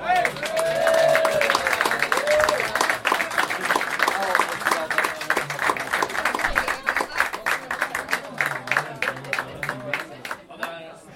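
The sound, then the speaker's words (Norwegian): Live audience applause, dense and steady for about ten seconds, with a brief cheer near the start before the clapping thins out and fades toward the end. “Applaus for”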